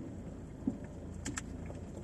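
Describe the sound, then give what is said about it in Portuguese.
Muffled, low-pitched hum inside a parked car on a street with the windows closed, outside noise dulled to a steady rumble, and a couple of soft, brief clicks near the middle. No one speaks. “A gente tá sem máscara porque a gente tá dentro do carro e os vidros tá todo trancado,”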